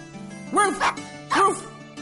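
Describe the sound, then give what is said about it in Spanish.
A playful dog named Rocky gives two bright barks about a second apart, fairly loud, over a soft steady tonal background. “Este perro juguetón es Rocky.”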